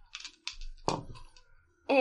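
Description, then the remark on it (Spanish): A handful of dice is rolled all at once, clattering across a hard surface in a few quick bursts of rattling clicks, fairly loud, before a voice starts speaking at the end. “Eh, ¿Tengo dados suficientes para hacerlo de golpe? Yo diría que sí.”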